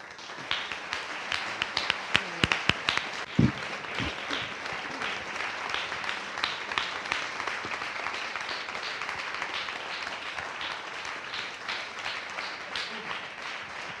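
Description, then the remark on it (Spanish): An audience breaks into sustained applause for the women who are the protagonists of the project, a dense, steady wash of many hands clapping with a few sharper individual claps standing out near the start, continuing at an even level throughout. “Es decir, nos podemos poner muchas flores y hemos hecho mucho trabajo, hemos trabajado mucho, pero son estas mujeres las, realmente las, protagonistas y para las que pido un aplauso ya”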